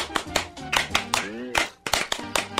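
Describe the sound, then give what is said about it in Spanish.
Steady, rhythmic hand clapping at a party, about a dozen sharp claps in quick succession, fairly loud, as everyone claps along to a voice singing or chanting a clapping song over the beat. “¡Aplaudir! ¡Aplaudir! ¡Todo el mundo va a aplaudir!”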